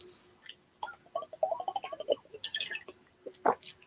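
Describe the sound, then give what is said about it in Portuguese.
Quiet wet sounds of someone sipping water: small slurps, a gulp or two and soft mouth clicks, with no talking. “Eu vou ter que beber mais uma água aqui.”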